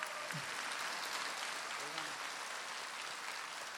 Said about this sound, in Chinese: 鼓掌。